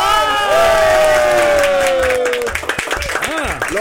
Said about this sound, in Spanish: Estaba soltera, ya no estoy soltera. ¿Cómo? ¡Aplausos!